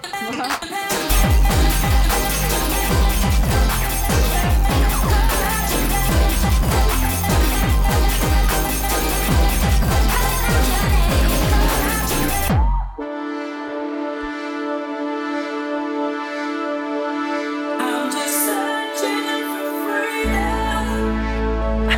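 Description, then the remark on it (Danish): Loud, dense, harsh-sounding music, deliberately overdriven and distorted so it sounds smashed, with pounding beats for the first half before shifting abruptly to a sustained, droning distorted section with heavy bass. “Danmarks Radio derude, der overstyrer det, skal lyde øh, sådan lidt smadret”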